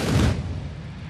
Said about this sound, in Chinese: 炮声隆隆，响彻云霄。汉光演习第四天，全台好几个地方实施联合反登陆演习。屏东满风的实弹操演震撼登场。